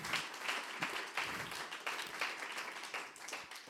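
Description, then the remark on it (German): An audience applauds in a steady, dense patter of many hands clapping, sustained and fairly even in loudness throughout, with no voices standing out above it. “Geben wir äh, euch Applaus.”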